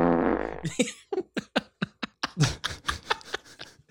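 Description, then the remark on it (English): A low, buzzy fart drawn out for under a second, then a rapid run of short sputtering bursts, loud, with no talking over it. “now it's the fart staff.”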